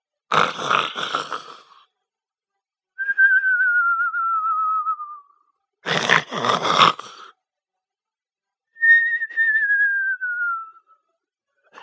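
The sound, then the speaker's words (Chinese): A soldier lying in bed snores loudly, the exaggerated snore repeating twice: each cycle starts with a rough, rattling inhale, then a long, thin whistle on the exhale that slides gently downward in pitch. No one speaks. “然后躺在床上，不久就大声的打起了鼾来。”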